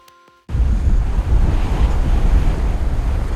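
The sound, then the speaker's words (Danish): After a brief quiet start with a faint tone, loud, steady wind and rushing surf burst in and roar continuously, heavy and rumbling, with gusts buffeting the microphone, in the Tønder Marsh, a coastal marshland. “Du er i Tøndermarsken. Det er et landskab, der aldrig har fundet sig til rette, som ustandsligt synker i havet og stiger op igen.”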